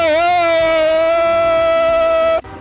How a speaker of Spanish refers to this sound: ¡Ay, ese fue el tren! El hermano del otro tren.